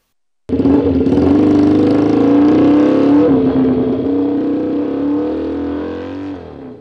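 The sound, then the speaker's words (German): A group of motorcyclists escorting a bride and groom in the afternoon revs and roars past. The engines are loud, a thick, continuous rumble that starts abruptly and holds for several seconds before easing slightly. No one speaks. “Am Nachmittag begleiten viele Motorradfahrer ein fröhliches Brautpaar”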